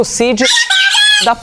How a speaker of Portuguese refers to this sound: Olha o passarinho cantando.